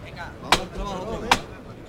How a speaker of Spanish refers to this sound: Suena de nuevo el martillo.